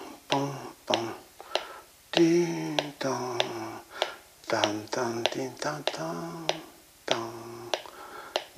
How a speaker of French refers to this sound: donc euh, avec le métronome, je cherche exactement. Disons ça, c'est à, à son.